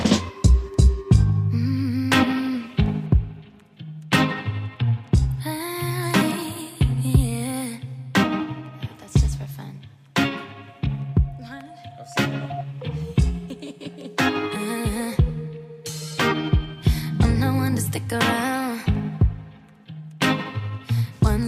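A pop song intro plays, loud and upfront, with a steady rhythmic beat under layered melodic instruments, running continuously without any talking over it.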